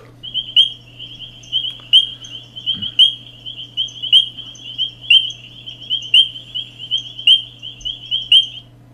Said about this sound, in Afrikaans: Die mannetjies vorm ook kore wat 'n aansienlike lawaai kan maak. Nou so klink die die skillebond rietpadda se roep.